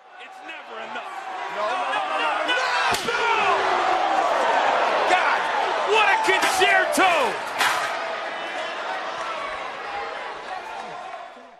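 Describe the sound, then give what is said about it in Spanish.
A roaring, cheering crowd fills the whole scene at a wrestling match while several hard, sharp metal chair slams crack through it, one early on and then a quick cluster of heavy hits near the middle, as a wrestler's head is laid on a metal chair on the floor and crushed with another metal chair. “Un golpe en el que básicamente ponen tu cráneo sobre una silla metálica en el suelo y tu oponente te remata aplastando tu cráneo con otra silla metálica en un golpe duro, seco y sonoro.”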